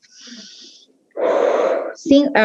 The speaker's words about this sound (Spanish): Respiremos, incluso si, quieren ejercicios de respiración cuando estemos afrontando un momento de crisis, respirar cinco veces